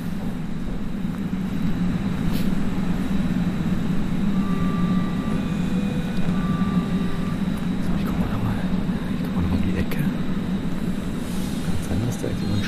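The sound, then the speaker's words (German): A steady, loud low rumble of an S-Bahn commuter train fills the whole stretch, with faint electric whining tones rising and fading above it and no clear break in the noise. “ich warte mal noch, bis die S-Bahn weggefahren ist.”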